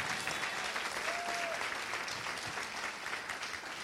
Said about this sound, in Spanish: Alguien dice amén. Alguien que lo crea y le dé un aplauso fuerte a Jesús.